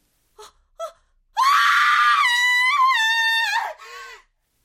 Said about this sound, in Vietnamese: có tiếng cô gái nào đó hét thất thanh dưới bãi đất trống. Thì ra cô đi đổ rác và nhìn thấy có một cánh tay nhô lên khỏi mặt đất.